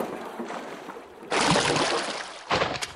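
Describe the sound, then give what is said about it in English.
A wooden fishing boat with several people aboard scrapes and slides as it is pushed off into river water, with a broad rushing splash, then a second surge of churning water as it settles and drifts away with the current. Fairly loud, no voices. “Gentlemen, into the boat. You too, Cat. No point in getting your robes dirty. I'll push us off.”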